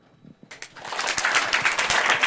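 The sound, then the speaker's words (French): An audience bursts into applause to answer a question by show of applause, after a brief quiet moment, the clapping quickly swelling into a dense, steady patter of many hands that stays loud to the end. “Est-ce que par applaudissement, il y a beaucoup de meufs qui ont applaudi”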